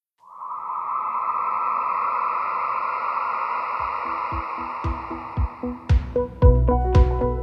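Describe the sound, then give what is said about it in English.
A cell phone alert tone for the Instacart app, processed with heavy delay and reverb, swells and hangs eerily. Staccato low pulses and echoing hits then pile up in the second half, creating a dark, ominous atmosphere at the start of an ad spot, with no voices. “I took that same sound and added a lot of delay and reverb to create this sort of ominous, spooky atmosphere.”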